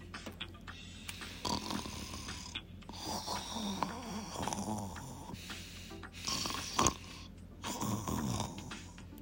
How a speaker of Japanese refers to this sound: その短い移動の間で車の中で仮眠をとるいや仮眠とは言えないくらい二人は大きないびきをかいて寝ていた